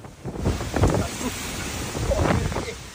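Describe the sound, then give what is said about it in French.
Cyclone Bellal roars on Réunion island at 6 a.m. on a Monday, with heavy, torrential rain and gusting wind surging in waves of dense, rumbling noise that swell and ease over a few seconds. “Lundi, 6 h du matin, sur l'île de la Réunion, le vent se déchaîne, les arbres se cassent, la mer est démontée et les pluies diluviennes.”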